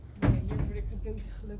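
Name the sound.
door opening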